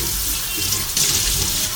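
Steady, continuous rush of running water from a tap while washing dishes, a broad hiss with a slight surge partway through, heard alone with no talking.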